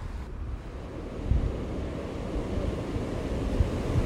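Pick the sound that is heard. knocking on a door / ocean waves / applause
ocean waves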